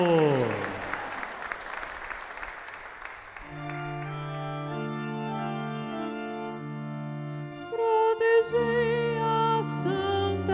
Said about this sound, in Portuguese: Mais uma vez, uma grande salva de palmas à Nossa Senhora.